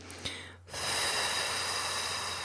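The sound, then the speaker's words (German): A long, forceful breath pushed out through the lips as a steady hissing "ffff" during a guided breathing exercise, exhaling until no air is left, starting abruptly after a brief inhale through the nose and holding strong for nearly two seconds without talk. “Mit Geräusch, bis nichts mehr kommt, richtig raus mit der Luft.”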